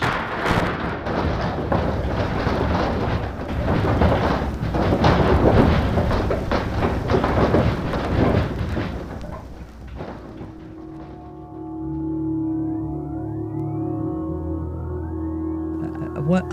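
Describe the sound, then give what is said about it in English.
A deep, loud earthquake rumble with crashing and shaking noise fills the first ten seconds, then gives way to a steady droning hum with faint rising whines. “We believe this to be a most unique and unusual recording, and we know that these sounds will bring back vivid memories to all who experience this terrifying tremor of the Earth's surface.”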